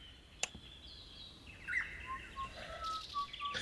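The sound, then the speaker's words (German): High, thin whistling tones drift in and out, mostly steady pitches with a few short chirps, fairly faint over a quiet background with no voices. “Gut, äh, ich höre da so ein Pfeifen.”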